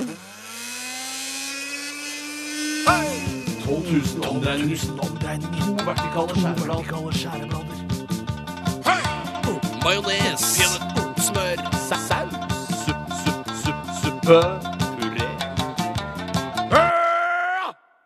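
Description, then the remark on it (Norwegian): A short radio jingle for the Stavmikser segment of Radioresepsjonen on P3: a sustained buzzy synth tone swells in, then a steady driving beat with pulsing electronic tones carries on before a rising tone closes it. No voices. “Og med denne jinglen ønsker jeg alle ivrige stavmikserfans der ute hjertelig velkommen til ukens stavmikser.”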